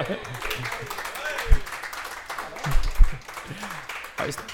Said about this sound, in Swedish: Det tycker jag är värt en applåd alltså.